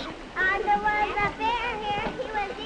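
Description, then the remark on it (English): A noisy school classroom full of busy children at work, with many young voices chattering, calling across the room and talking out loud over one another in a steady, lively din. “What makes the room so noisy?”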